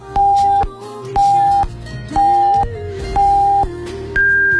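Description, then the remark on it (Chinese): The hourly time signal for 8 p.m. Beijing time on FM 94.6 Longguang News Radio: four steady mid-pitched beeps about a second apart, then a fifth, higher-pitched beep that holds, all over a soft background music bed. “十几秒整点报时之后，马上回来。”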